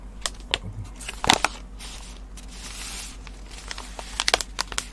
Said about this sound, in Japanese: で、今はやっぱりクリンクルサウンドとかが好きですね。あの、ビニール袋とかの音ですね。あれがめちゃくちゃ気持ちいいんだよね。